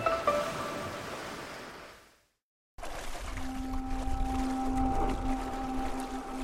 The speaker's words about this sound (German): Da steht, dass es heute 17 Grad hat. Und mit großen Wellen. Und ich finde, das ist toll, dass da so große Wellen sind, weil man kann da mit gut surfen